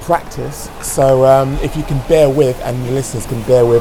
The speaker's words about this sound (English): As you can probably hear the splashing in the background, I'm at my son's swim squad or uh, swim squad uh,